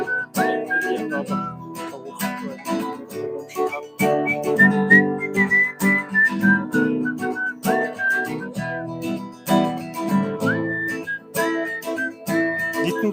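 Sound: music playing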